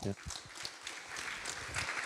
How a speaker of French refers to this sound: Je pense qu'on peut encore les applaudir. Merci à vous.